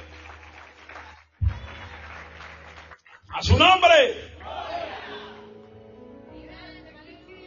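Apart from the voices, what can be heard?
audience applause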